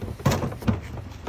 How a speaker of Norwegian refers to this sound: Jeg tror det er søppelbilen